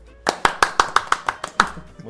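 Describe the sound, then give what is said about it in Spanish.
A short burst of hand claps for a young filmmaker's award for a short film, about eight or nine sharp, evenly spaced claps in quick rhythm, fairly loud, as if one or two people applauding. “Un aplauso para”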